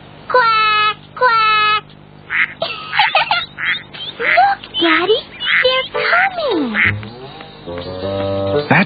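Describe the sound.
A young voice imitates a duck, letting out a rapid string of loud, nasal quacks, two long ones first, then many shorter ones, ending in a drawn-out squawk.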